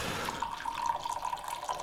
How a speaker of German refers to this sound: Nein, ich mache nicht Pipi, ich gieße mir noch einen Kaffee ein.